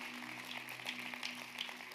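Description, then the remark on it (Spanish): A church audience claps for the Lord during a sermon, a dense, steady burst of applause, many overlapping hand claps forming a continuous crackling wash at an even loudness over a low electrical hum. “Aplauda al Señor ahí, aunque le, piquen los dedos”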